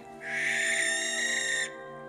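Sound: barn owl call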